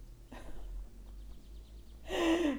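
A person sitting on a sofa takes a long, soft inhalation that gives way to a louder, breathy exhale ending in a slight voiced sigh, with no talking.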